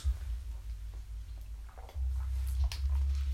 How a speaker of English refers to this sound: So start, let me get some water because getting excited. We drink some water.